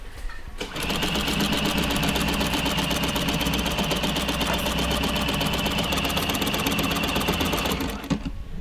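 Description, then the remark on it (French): A linking machine stitching knitwear runs steadily for about seven seconds, a loud, rapid mechanical chatter with a fast even rhythm and metallic whir, starting and stopping abruptly, with no voices over it. “Alors attention, ça va faire un peu de bruit.”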